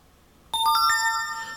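A short phone notification tone plays alone after a brief silence: a quick run of bright, bell-like chimes stepping upward, then a sustained shimmering tone that lingers clearly to the end.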